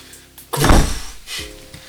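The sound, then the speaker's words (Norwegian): A single heavy, muffled knock on a door, fairly loud, fading out over about half a second in a low rumble. No one speaks. “Det, det banker på døren.”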